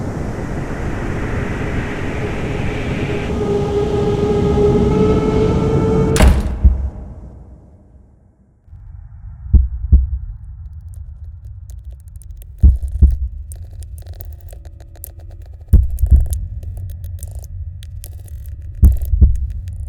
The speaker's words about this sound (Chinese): 那个心跳声是我的，我面对的那个对象是没有心跳的。我在没有声音的环境，刚刚听到心跳声，心跳慢慢在砰动血液，血液流动到我的脑袋里，脑浆的声音我听到一下一下。